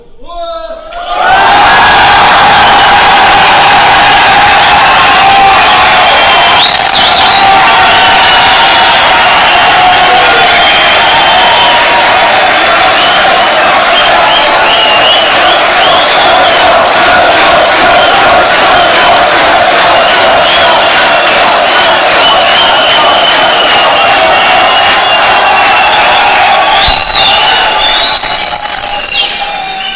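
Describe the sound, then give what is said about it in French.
A large crowd of more than 1,000 people in a hall in the northern districts of Marseille cheers and shouts loudly and without pause for nearly the whole half-minute, with a couple of shrill whistles rising above the roar. “Bon, tu as une belle salle là de, plus de 1000 personnes dans les quartiers nord de Marseille qui.”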